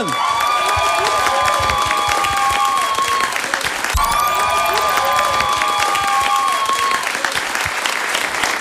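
Dense, steady applause from a crowd fills the whole stretch, with whistles and cheers rising above the clapping in several bright streaks.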